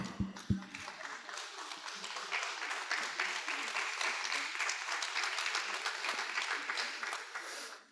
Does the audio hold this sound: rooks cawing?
no